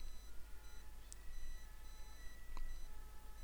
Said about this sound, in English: Now, I bet you hear the siren in the background. And if I were meditating, if I was minded one way, I would say to myself, damn it, I can't meditate now. It's been disrupted or I've been distracted by that siren.